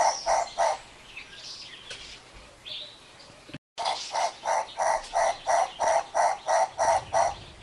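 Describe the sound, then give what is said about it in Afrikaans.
A Knysna turaco calls in a long series of loud, harsh, evenly spaced croaking notes. The rhythm breaks briefly partway through, and faint chirps from other birds sound in the background. “Ek gaan ons so klein stukkie speel. Dis dan die Nysna Turako met 'n C as jy hom wil gaan soek aanlyn.”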